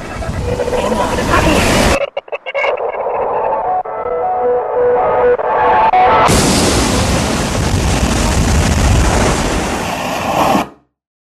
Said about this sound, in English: The power just went out throughout all of this Hallandale area. It is a big hurricane. The ocean has begun to invade the land absolutely most intense part of the storm right now is coming ashore.